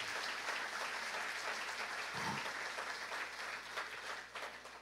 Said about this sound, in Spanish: de verdad les quiero honrar delante de todos, qué bueno que le podamos dar un aplauso a ellos también. Dios les bendiga.